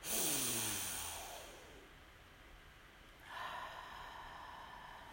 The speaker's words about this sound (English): We'll take a deep breath in. So, deep breath in, smell the aromas, fragrances, and odors in your area.